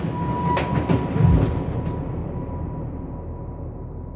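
A train rolls along the rails with a steady low rumble, a few sharp metallic clacks and a brief squeal early on, then the noise settles into a continuous dull roar.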